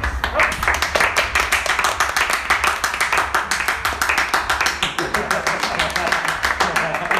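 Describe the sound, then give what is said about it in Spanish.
A group applauds a team at a clown host's call: many hands clap quickly and densely in a steady, fairly loud stream for about seven seconds, with some voices mixed faintly underneath. “A un aplauso para ustedes.”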